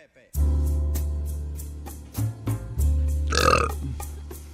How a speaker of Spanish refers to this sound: No, no, no empiecen a eructar, eso es después de la comida.